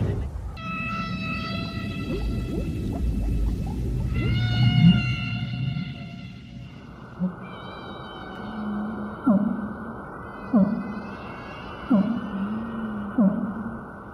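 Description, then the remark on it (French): Whale calls recorded underwater: long, wavering tonal cries with a rich harmonic ring rise and fall over a constant low rumble, joined later by several soft, regularly spaced knocking pulses. “Et c'est pour ça qu'elles peuvent communiquer entre elles sur de très grandes distances.”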